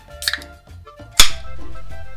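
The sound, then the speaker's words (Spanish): A bottle being uncapped: a faint click, then a sharp, loud pop with a brief fizzing tail fading over a low background hum. “La destapo para joderles los oídos. Se escuchó bien fuerte eso, ¿verdad?”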